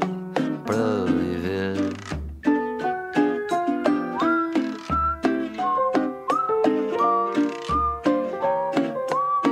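A clear whistled melody rides over a full band arrangement, the tune moving in bright sustained notes above a steady bass and rhythmic accompaniment, close and prominent throughout.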